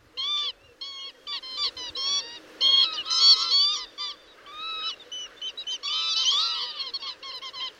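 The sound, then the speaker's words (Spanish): A chorus of birds calling over each other at their resting area, with bright, repetitive chattering notes in quick overlapping bursts, steady throughout, with no voices present. “pero bueno, vamos a nuestro pájaro protagonista de la tarde.”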